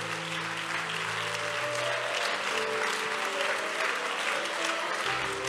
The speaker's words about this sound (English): Can you receive him with a warm hand clap? Amen. Why don't we give that hand clap to God? God, you're worthy.